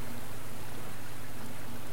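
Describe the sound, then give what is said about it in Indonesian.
A steady, rushing roar of a waterfall fills the scene, a dense continuous wash of water noise with a faint low hum beneath it and no voices. “Derasnya air terjun mengingatkanku pada musim gugur di Michigan.”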